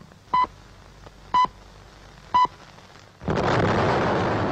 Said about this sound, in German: Und jetzt in dieser Sekunde ist die Rauchwolke dort emporgeschossen in mächtigen Rauchpilzen schießt der Qualm empor zum Himmel. Die Sprengung ist erfolgt. Ein mächtiger Druck.